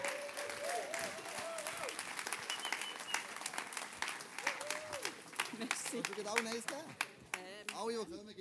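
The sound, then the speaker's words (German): A crowd applauds the people still standing as they are called forward to receive a bar voucher, with dense, continuous clapping for several seconds and voices calling out and cheering over the noise. “Geben wir einen Applaus.”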